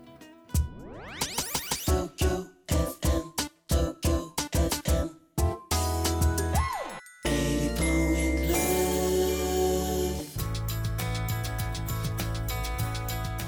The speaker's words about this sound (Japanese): はい、えー、それでは初めてのアニメオープニングテーマです。聞いてください。